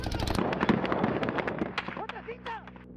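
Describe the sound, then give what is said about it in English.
Rapid, loud bursts of gunfire from soldiers in an army truck crack in quick succession for about two seconds on a dark highway in the border town of Nuevo Laredo, across the Rio Grande from Laredo, Texas, then thin out as raised, wavering voices rise over the last stretch. “And then the soldiers inside begin to open fire.”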